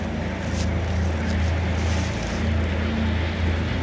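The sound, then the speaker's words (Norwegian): Tank tracks rattle beneath a steady, heavy engine rumble of tanks across a border river in fog, a continuous low droning mechanical sound that holds fairly loud and even throughout, with no voices. “Men nå hørte vi raslinga av, eh, av belter.”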